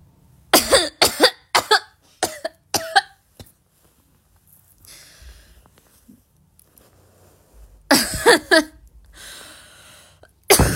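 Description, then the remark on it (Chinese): A fit of coughing brought on by talking too much: about half a dozen sharp, loud coughs in quick succession, a quiet pause with faint breathing, then another harsh burst of coughs and a final one at the end. “我我不行，我说多了咳嗽。”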